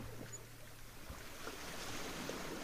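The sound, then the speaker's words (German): A steady, soft wash of sea waves at the shore, a continuous hiss with gentle swells and no voices, plus a faint low hum in the first second. “Wenn du hier so stehst und aufs Meer schaust, fühlst du dich da aufgeräumt und klar.”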